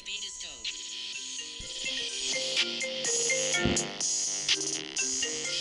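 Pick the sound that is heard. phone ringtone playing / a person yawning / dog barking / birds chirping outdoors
phone ringtone playing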